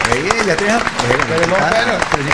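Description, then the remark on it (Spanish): A burst of app-generated applause, a dense, steady patter of claps running the full couple of seconds, heard under loud, overlapping voices talking and exclaiming. “una de las cosas que pasó durante este programa que no le bajé esta aplicación que hace aplausos.”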